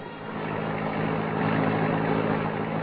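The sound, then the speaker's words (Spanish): A car engine idles steadily as a personal car is taken out of a house garage, a continuous low rumble with a faint rise in level after the first moment, no voices present. “obligó a Margarita a que fueran al garaje de su casa y sacara el coche personal de ella”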